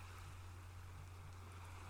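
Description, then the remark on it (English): A steady, soft wash of ocean surf rolls on without pause, a low rumbling murmur with a faint hiss on top and no distinct breaking crashes. No voices are present. “If you'd like to, you can open your eyes now or continue to enjoy the sound of the ocean.”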